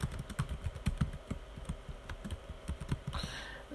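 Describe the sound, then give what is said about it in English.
Rapid keystrokes clatter on a computer keyboard in quick, uneven bursts as someone searches on Google, fairly loud, with no one speaking. “let me let me go and figure this out. Google. Let's do Google.”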